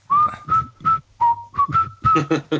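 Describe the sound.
A clear whistled melody moves through a series of short, evenly paced notes and phrases, sitting up front over a soft instrumental backing, with no voices.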